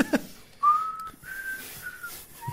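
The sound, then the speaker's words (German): A person whistles a short melody of a few sustained, clear tones that step up and then down, moderately loud with no talking over it. “Du kannst so wunderschön pfeifen.”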